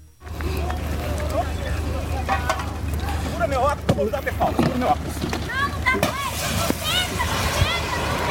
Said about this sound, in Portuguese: Olha só, olha só os gritos da pessoa que está atrás com o veículo registrando todo esse momento.